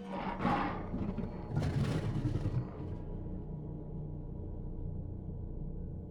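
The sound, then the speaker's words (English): A lion's deep, powerful roar surges in two heavy bursts over the first few seconds, then gives way to a low, steady rumble that lingers to the end. “By the time he heard the roar, it was already too late.”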